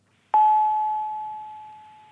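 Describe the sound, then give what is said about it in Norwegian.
A telephone line tone on an international call from Norway to Kenya: one steady, mid-pitched electronic tone begins abruptly and holds unbroken for nearly two seconds, fading only slightly, with no voices. “I, i, i dag så kan vi ringe til Kenya, f.eks.”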